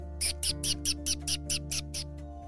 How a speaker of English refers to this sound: They listened to the wind blow between the trees animals chittering in the branches